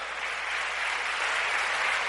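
An audience applauds steadily, a dense wash of many hands clapping at an even, sustained level for a couple of seconds with no voices standing out.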